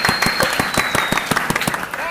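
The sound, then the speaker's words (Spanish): Applause at an awards ceremony as a winner is announced: steady, rapid hand claps, about a dozen sharp bursts in an even rhythm, with a thin high-pitched tone running faintly over them. “¡Aplausos!”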